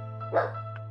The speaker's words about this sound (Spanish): En cuestión, ay, perdonen mi perro, que, que se está emocionando por, por la historia.